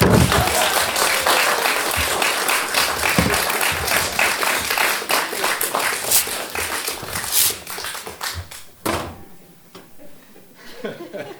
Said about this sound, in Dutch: Dames en heren, mag ik een gigantisch applaus?